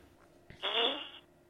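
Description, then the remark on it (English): A single short, raspy fart-like blast lasting about half a second, made as someone takes a hit, against a quiet background with no talking. “Did you just fart?”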